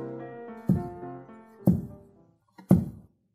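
Three heavy, dull knocks of a head striking the floor in a kowtow, evenly spaced about a second apart, over sustained musical tones that fade out after the second knock.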